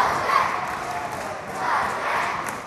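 Parents and siblings cheer and shout from the sidelines of a football match of six-year-olds, a steady crowd roar that swells twice, with overlapping voices and no single clear words.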